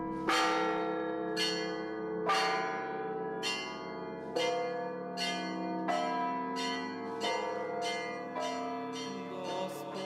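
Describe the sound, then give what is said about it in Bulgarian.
Church bells ring out in a steady peal, strike after strike roughly every second, each one ringing on with a long, shimmering decay. They sound loud, with no voices. “бият камбаните.”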